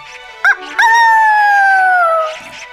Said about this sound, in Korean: 닭 소리에 눈을 뜨고 저녁엔 음. 소 울음소리를 들으며 퇴근하는